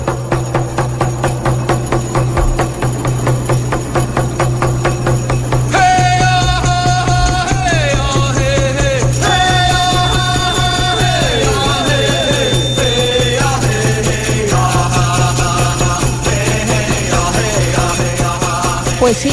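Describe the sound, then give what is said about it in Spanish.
A Cheyenne warrior song: a steady, insistent drumbeat pounds throughout, and after a few seconds loud chanting voices join with rising and falling melodic lines over the drum. “Así, con estos tambores, con esta música que de verdad tiene un ritmo bastante maravilloso a mi parecer, eran recibidos todos los que morían en el campo de batalla.”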